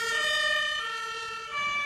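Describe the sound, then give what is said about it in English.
A European two-tone emergency siren wails steadily and loudly, its bright harmonic tones sustained and alternating in pitch, with faint road rumble underneath and no voices. “That's the European sound.”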